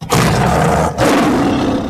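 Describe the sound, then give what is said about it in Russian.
A tiger roars twice in quick succession, loud, each roar a deep, rumbling growl with a brief pause between them. “И вот на смену демографическому титану мягко ступает черный водяной тигр.”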